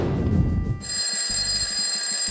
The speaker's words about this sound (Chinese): 第二天早晨，哼哼猪卧室里的闹钟准时响了起来。